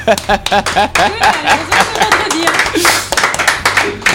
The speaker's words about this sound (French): Bon, en tout cas, on applaudit notre invité